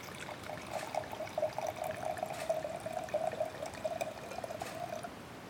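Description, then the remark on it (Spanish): Wine pouring into a glass in a steady, unbroken stream for about five seconds, with a bright gurgling tone and soft bubbling flutter throughout. No one speaks. “Vamos aquí a servir un poco de vino.”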